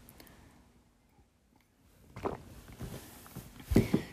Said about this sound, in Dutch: Nou, even een slokje water, want al het geklets.